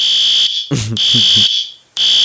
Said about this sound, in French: Bon, c'est une alarme. Mon chum est à l'extérieur, alors j'ai son camion en ce moment.